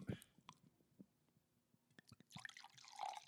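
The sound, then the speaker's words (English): Unchilled wine pours into a glass, starting with a few faint, scattered drips and clinks, then building into a short, soft gurgling stream in the final second, quiet. “I love the way wine pours into a glass.”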